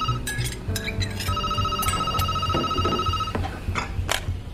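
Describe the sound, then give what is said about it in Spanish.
A telephone rings in Coyoacán, Mexico City, at 7:50 in the morning on 31 August 2005, with a steady electronic trill, its tone holding for several seconds over a low hum and a few faint clinks. “Son las 7.50 de la mañana y en Coyoacán, Ciudad de México, suena un teléfono.”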